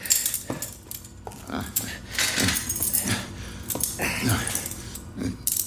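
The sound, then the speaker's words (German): Keys jangle and clink in short bursts, followed by metallic clicks and rattles as handcuffs are unlocked and taken off a person, with faint movement and breathing in between. “Ach, Doc, bitte, nehmen Sie mir die Handschellen ab. Der Schlüssel liegt da vorne auf dem Medizinschrank.”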